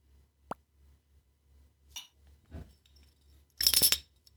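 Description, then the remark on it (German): Glasses clink together, one glass knocked against another: a few light knocks and taps, then a brighter ringing clatter near the end, fairly quiet, with no talking. “Ja, Nein, das war ein Glas an ein anderes Glas.”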